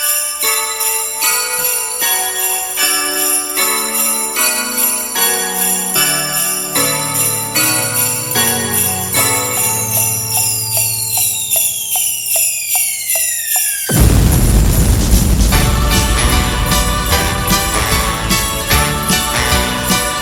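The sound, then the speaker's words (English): Sleigh bells jingle steadily in a bright, busy song intro over a descending bass line, before the music abruptly gives way to a loud, roaring burst of noise. “The sleigh bells are ringing and the carolers are singing while the air raid sirens blare.”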